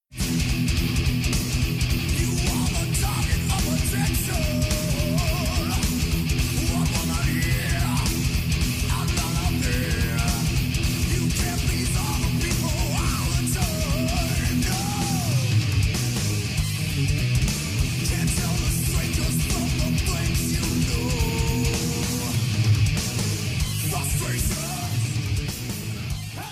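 Loud, dense heavy metal plays throughout, with thick distorted guitars, pounding low end and harsh shouted vocals riding on top at a steady, unrelenting volume.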